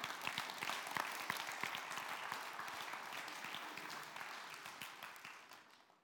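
A crowd applauds God at a preacher's invitation, a dense, fairly loud wash of many hands clapping at once for several seconds before tapering off at the end.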